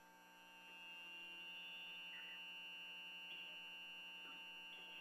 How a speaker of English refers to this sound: Oh man, that interference, boy, buzzing right in the old ears. I hope uh, if you're hearing it inside, bothers you too, like a plate scraping, huh?